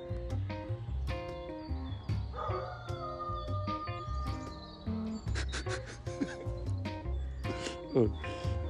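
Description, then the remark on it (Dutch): A dog that can no longer see its owner whines and yelps in a series of high, tonal cries and short sharp yelps, steady throughout, with some background noise underneath. “Dan gaat ze, gaat ze janken.”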